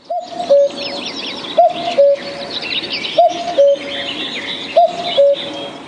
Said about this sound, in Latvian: Tālāk ir ar to dzeguzi. Un paklausīsimies, ko par to saka pati dzeguzi.